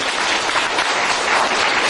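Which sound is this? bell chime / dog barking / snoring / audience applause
audience applause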